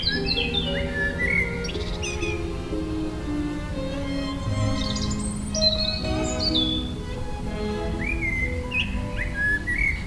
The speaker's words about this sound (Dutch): Hier staan veel hoge bomen en we zijn al even aan het genieten van een concert van twee solisten eigenlijk. Ja, het zijn twee geliefde zangers, hè? de Merel en de Roodborst.